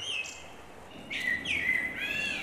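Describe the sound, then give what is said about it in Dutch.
A blackbird sings a short run of clear, fluty warbling phrases with rising and falling notes, distinct, with no voices and only faint background hiss. “van de merel en de zangvogel.”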